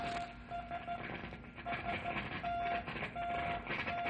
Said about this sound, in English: Hey, that's an SOS, and it's not very far away. I mean, seems to be getting weaker. Right. Somebody's in trouble, and we gotta find them fast.